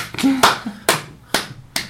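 One person claps four times in a slow, even rhythm, each clap sharp and fairly loud, with a short vocal sound just before the first clap.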